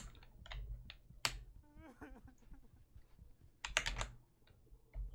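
Rapid, clattering keystrokes pounded on a computer keyboard in irregular bursts, with a loud flurry near the end; faint voice-like sounds and background noise sit underneath.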